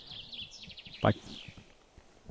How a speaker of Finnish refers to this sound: Olisiko siellä Peippo? Peippo siellä Nuuksion metsässä äänessä. Ihan kun olisi tänne studion saakka kuulunut.